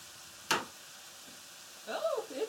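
A single sharp knife chop thuds against a cutting board as the top and bottom are cut off a celeriac root, followed shortly by someone starting to speak.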